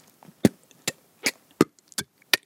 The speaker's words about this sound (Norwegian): Du kan, løfte, du kan stenge og så kan du løfte opp strupehodet. Og da får du en lyd sånn ja, Først så lukker jeg leppen, mm. og så løfter jeg strupehodet. Det Blir overtrykk i munnen.